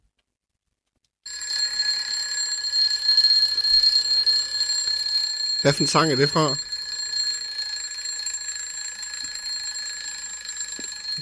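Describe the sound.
A mechanical alarm clock rings loudly and continuously for about ten seconds, a steady, shrill metallic jangle, with a person briefly speaking over it partway through; it rings after 24 bars of a song.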